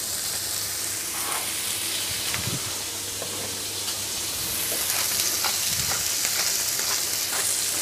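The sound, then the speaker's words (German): Meat seasoned with salt and pepper sizzles steadily in a hot frying pan, a dense, hissing fry with scattered pops and crackles running the whole time, fairly loud, with no voices. “Pfanne ist heiß, man hört es.”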